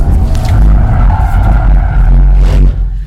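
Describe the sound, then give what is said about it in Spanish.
A CUV drifts on a race track, its loud engine roaring steadily while tires squeal and skid across the pavement, continuous for the whole stretch with no voices. “No, no saben cómo estamos drifteando.”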